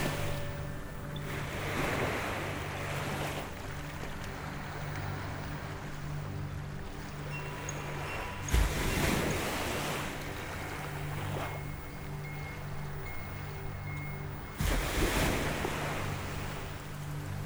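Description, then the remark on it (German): Ocean waves wash onto a beach in steady surges, each swell rising into a broad rushing hiss and receding, with a low constant rumble of surf underneath and no voices. “Der Sand, wo sie drauf sitzen, ist weich und fein und ganz ohne, dass sie es merken, passt sich ihre Schnuff dem Rhythmus der Wellen an.”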